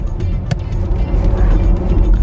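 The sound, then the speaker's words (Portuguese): An iX electric SUV accelerating hard in Sport mode, heard from inside as a loud, steady low road-and-tire rumble with a faint whine above it and one brief sharp tick early on; no one speaks. “É bem impressionante o poder de aceleração do iX.”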